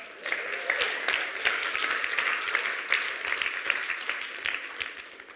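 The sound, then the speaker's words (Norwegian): Steady audience applause for those in the audience who went skiing that day, a dense crackle of many hands clapping at once, sustained at an even moderate level for several seconds with no voices standing out. “Vi må gi dem en skikkelig klapp.”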